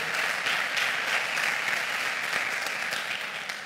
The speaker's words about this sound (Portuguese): Você podia aplaudir a ele.